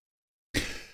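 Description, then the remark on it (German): After a moment of silence, a single sudden sneeze bursts out, a sharp, breathy rush of noise that trails off quickly. “Gesundheit.”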